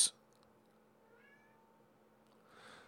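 A soft, short cat meow rises faintly over a low, steady background hum, with a sharp click at the very start and a breathy rustle near the end.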